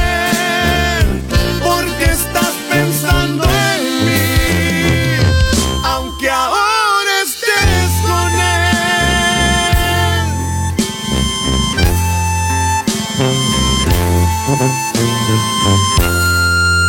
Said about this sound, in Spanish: Disculpen que detenga un poquito esto, pero esta canción la tengo que presentar como solamente Diosito manda.